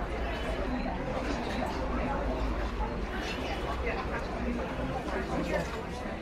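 A steady, dense background murmur of many people standing together and talking at once, with no single voice standing out, as in a café or subway, with faint clatter beneath the continuous hubbub.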